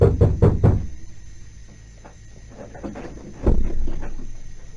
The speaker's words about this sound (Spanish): Muy de mañanita se oyeron golpes en la puerta. Ya traigan la noticia, amigo va, ya va, ya va.